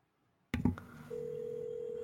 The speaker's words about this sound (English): They don't have anybody like they have like no reason to not be answering my phone on the first ring.